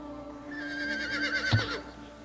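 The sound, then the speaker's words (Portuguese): A single horse whinny as people climb onto the horse, a high, shaky, quavering call that rises and trembles for about two seconds. It is clear, with a soft thump partway through and no talking. “vamos, vamos subir no cavalo, gente.”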